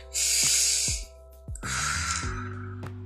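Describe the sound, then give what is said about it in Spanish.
Two long, forceful breaths hiss into the microphone, each lasting under a second with a short pause between them; the second is steadier and lower, a demonstrated controlled exhale of a breathing technique. “Esos tres, lo primero que te van a enseñar cuando vienes a consulta es la respiración controlar y sacar.”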